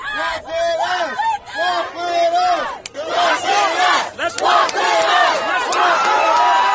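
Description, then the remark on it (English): A large protest crowd chants "walk with us" loudly in unison, many voices repeating the short rhythmic phrase over and over, sustained throughout with a dense wash of shouting. “So if you couldn't hear, they're saying walk with us, and they did, and it was so powerful too, because it's tough,”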